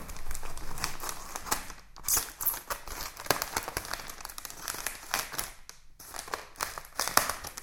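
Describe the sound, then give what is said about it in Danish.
Busy crinkling and crackling of paper and tape with sharp snips and tearing as scissors cut open a large brown package fully wrapped in tape, holding posters for the Bliksen Prize, continuous for several seconds with no talking. “Og lige nu sidder jeg med en stor brun pakke her foran mig, og den er limet fuldstændig ind i klisterpapir, og den er meget stor, og den indeholder plakaterne mm.”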